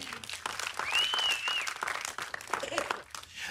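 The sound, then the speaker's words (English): A church audience claps hands to the Lord during a sermon, a dense, steady burst of applause, with a brief high whistle-like cry rising over it early on and voices calling out through the clapping. “Somebody ought to clap their hands to the Lord right there.”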